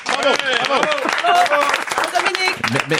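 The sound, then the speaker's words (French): Steady applause from a group, many hands clapping in a dense, continuous patter for about three seconds, with voices calling out and talking over it throughout. “On applaudit dans l'espace Pedro.”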